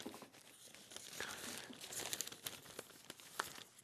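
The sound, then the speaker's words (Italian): Paper rustles and crinkles continuously, with sharper crackling bursts as large newspaper sheets are handled and turned while searching through the papers, including page 16 of Il Messaggero. No voices. “mi oriento qui tra i giornali”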